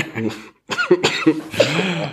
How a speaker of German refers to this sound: Oh, jetzt habe ich einen Hustenanfall ausgelöst, tut mir leid. Ekelhaft.